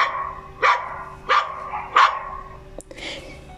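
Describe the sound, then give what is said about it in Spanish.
A dog barks three times in a steady rhythm, each bark short and fairly loud, followed by a brief click and a softer trailing sound, with no one talking. “Caminó y caminó y caminó hasta que con un perro se encontró y le preguntó ¿Tú has visto mi colita en alguna parte? Y el perro le respondió.”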